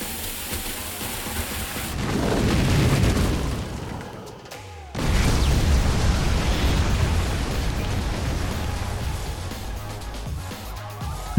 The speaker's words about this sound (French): On entend le bruit du gaz qui s'enflamme.